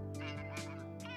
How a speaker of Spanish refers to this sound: ¿Ese es el sonido de su teléfono? Sí.